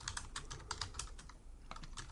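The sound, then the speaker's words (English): Rapid, uneven clacking of keys on a Logitech computer keyboard, with a brief pause midway before the keystrokes resume. No one speaks. “If you can't, if you can't hear, I'm typing.”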